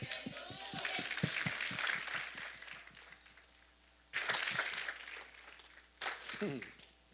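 One person claps by hand in quick bursts, applauding himself: a fast run of sharp claps fades out, then two shorter flurries follow after a pause, moderately loud.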